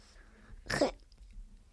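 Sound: sneeze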